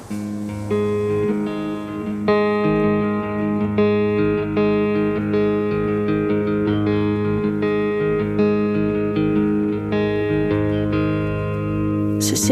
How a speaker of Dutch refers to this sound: Goed, eh, ter compensatie gaan we luisteren naar een Nederlandstalig eh, nummer. Eh, van een artiest die ook binnenkort optreedt in het Amsterdamse Bos. Hier komt ze aan.